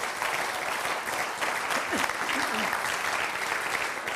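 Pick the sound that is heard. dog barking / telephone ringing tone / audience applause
audience applause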